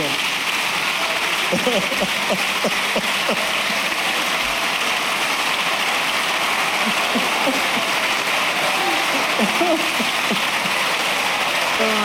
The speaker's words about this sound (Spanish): un Pedro Sánchez que está, muy, entretenido, muy ameno, muy suelto y está levantando los aplausos entre la bancada socialista.